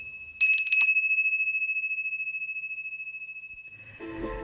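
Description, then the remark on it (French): A small hand bell rings sharply with a quick flurry of strikes, then a clear, bright tone lingers and slowly fades for several seconds before a voice begins. “Maudite clochette.”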